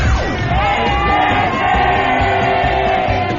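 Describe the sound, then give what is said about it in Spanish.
A large crowd yells a traditional group shout together in a loud, sustained roar of many voices, the massed shout holding steady for a few seconds without a break. “Queremos que te unas al tradicional grito Godínez desde el Ángel de la Independencia”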